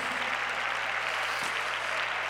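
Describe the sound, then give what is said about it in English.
A standing church audience claps hands to the Lord during worship, a dense, steady wash of many overlapping claps at an even loudness throughout, with a low constant hum underneath and no clear voices. “Clap your hands to the Lord and tell him, Lord, I want you.”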